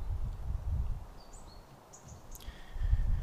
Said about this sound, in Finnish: aina tulee tuuli, kun mä tuun tänne ulos vääntämään.